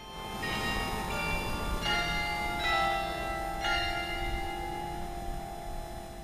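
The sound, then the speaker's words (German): The carillon of Kristiansand Cathedral in southeastern Norway rings out on the full hour in a steady sequence of resonant strikes, each tone overlapping the lingering hum of the last. “Er hat nicht nur eine berühmte Orgel des deutschen Orgelbaumeisters Gottfried Heinrich Gloger, er hat auch ein Glockenspiel, das zu jeder vollen Stunde ertönt.”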